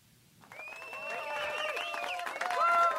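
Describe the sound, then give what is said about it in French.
Applause from a small crowd at an RDS broadcast builds from quiet to steady clapping, mixed with high cheering and whooping voices, growing louder toward the end. “Oh, on a même droit à des applaudissements.”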